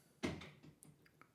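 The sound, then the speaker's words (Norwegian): A door bangs shut with a single low thud, followed by a couple of faint clicks and rattles as it settles. It sounds fairly quiet, with no voices. “Da gikk det en dør.”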